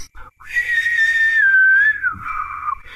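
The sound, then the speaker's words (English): A person imitates bad whistling: one breathy, sputtering whistle that wavers and slides slightly downward for about two seconds, with no talking. “Number one, the whistling is terrible.”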